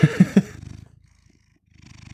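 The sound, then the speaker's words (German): A male cat purrs in a steady, low, rhythmic rumble while being cuddled on a Friday evening. It opens with three short, louder bursts, fades to near silence for a moment, then the purring starts up again. “Da katzt eine Katze.”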